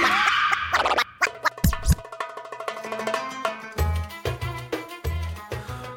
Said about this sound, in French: Euh, bah écoute, petit, petit, petit jingle et on, en parle tout de suite. On y va, c'est parti.